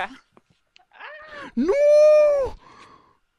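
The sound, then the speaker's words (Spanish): A cat meows twice, a short mew followed by a long, loud, drawn-out meow, close to the listener, with a person briefly exclaiming at the start. “Eso es un gato, sí”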